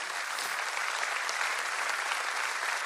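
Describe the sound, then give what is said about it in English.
An audience claps together to give God praise, in a dense, steady wash of applause that holds evenly for the full stretch, with no voices standing out above it. “Come on, really clap, give God some praise.”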